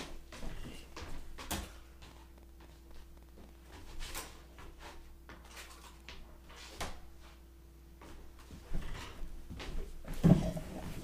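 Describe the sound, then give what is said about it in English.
The cat Gregory batting his toys under a door: scattered knocks and light scrapes come every few seconds against a quiet room with a steady low hum, ending in a louder thump. Nobody talks. “My cat is pushing his toys under the door, and I will come back and answer you in a moment.”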